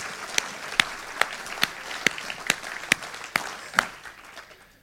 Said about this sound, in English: Come on, time to have a praise break. Let's give him a clap.